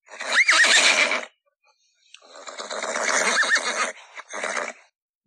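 A horse whinnies loudly and close up, a shrill, quavering neigh followed after a short pause by a longer, shaky whinny that breaks briefly before trailing off. No one speaks.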